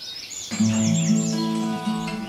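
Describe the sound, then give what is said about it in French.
A European serin sings a high, rapid jingling trill of repeated sweeping notes, clear, over a steady low droning hum with no one talking. “Cascade du serin, je regarde les bulles d'eau naître et mourir.”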